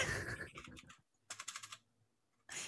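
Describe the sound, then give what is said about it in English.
Loud, clacky computer keyboard typing: a rapid flurry of keystrokes, a brief pause, then another quick burst of sharp clicks, with more clatter starting at the end. “I love that you oh. have a typewriter plugged into your computer.”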